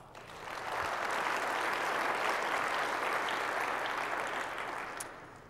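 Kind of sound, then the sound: crowd, audience applause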